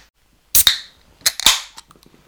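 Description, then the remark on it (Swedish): A beer being cracked open: two sharp metallic snaps, each followed by a brief bright fizzing hiss, then a few faint small clicks trailing off. No one speaks. “jag ska definitivt knäcka den här bredvid.”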